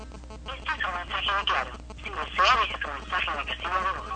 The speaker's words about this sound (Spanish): Eso es lo que contestan sus teléfonos ninguno de sus teléfonos contesta, están cortados, no hay forma de comunicarse con eh, Johnny Vázquez.